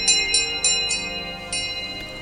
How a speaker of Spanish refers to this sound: Una campanilla se oye en algún lugar no definido. Padre, ¿usted también la escucha? Pregunta la muchacha, temiendo que sea otra de sus alucinaciones auditivas. Sí, hermana, y creo que proviene de aquella parte del cementerio.